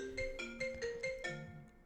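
A phone rings with a bright electronic ringtone, a melody of short tonal notes repeating in quick succession at a steady, moderate volume, with no one talking over it.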